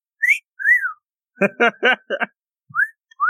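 A person whistles close to the microphone: short rising and falling tonal notes, then a burst of three or four quick harmonic chirps, followed by a few more brief whistled slides.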